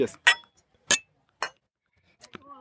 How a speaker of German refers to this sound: Sehr gerne. Immer wieder macht Spaß, auch mit euch anzustoßen. Und dann würde ich sagen, tun wir das mal mit diesem ja, fantastischen IPA.